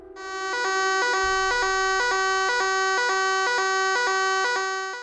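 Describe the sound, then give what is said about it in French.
A loud, harsh fire alarm, set off with no actual fire, rings in rapid repeating pulses, about two per second, steady and continuous throughout with no voices, piercing. “Et là, l'alarme au feu se déclenche.”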